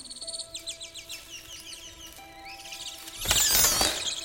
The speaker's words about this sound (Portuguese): Que pássaros são esses?